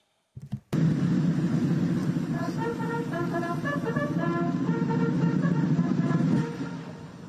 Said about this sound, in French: une fois que les, trompettes, là, ce sont, euh, enfin les instruments avant, je ne sais pas ce que c'est, ont fini de jouer la musique